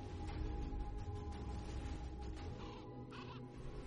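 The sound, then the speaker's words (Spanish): A crow caws over a dense, steady bed of music in a film trailer, its harsh calls fairly faint and surfacing briefly near the end rather than standing out clearly. “El príncipe pide eh, matrimonio a la princesa y el cuervo va a, a decírselo.”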